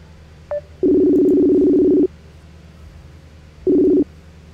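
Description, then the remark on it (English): A phone call being placed to a guest on a show: a brief electronic beep, then a long steady buzzing tone, a pause, and the tone again, cut short. No one speaks. “So let me give him a buzz.”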